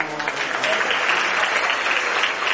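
An audience claps steadily for a man called up to tell his story, a dense, even wash of many hands that stays loud and continuous for the whole stretch without pausing.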